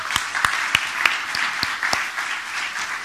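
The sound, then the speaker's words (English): An audience breaks into steady applause, a dense wash of overlapping claps with a few sharper individual hand claps standing out, sustained at an even level for about three seconds with no talking. “Yes, it's definitely something we should applaud.”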